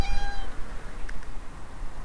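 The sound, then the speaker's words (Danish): A small cat rubbing against a person's legs lets out one short, high-pitched meow at the start, followed by a faint soft chirp, over a low steady outdoor rumble, after dark along railway tracks. “Der er kommet en lille kat, der smyrer sig om benene på mig.”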